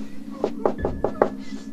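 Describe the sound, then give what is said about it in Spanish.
Five quick, evenly spaced knocks on a bedroom door, moderately loud, with a steady low hum running underneath throughout. “Escuché cómo me tocaron la puerta.”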